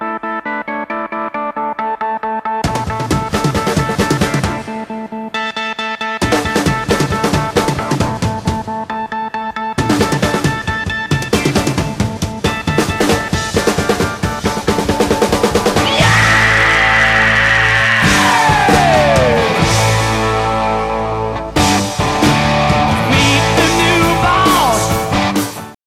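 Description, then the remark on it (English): A droning, pulsing keyboard line opens a loud rock track, then drums and band crash in and build until a long, raw guttural scream rips out over the full band. “because you hear this this long droning keyboard and and and it's like a build up to this like big guttural yelp scream thing and it uh yeah i think it just makes that song my favorite part”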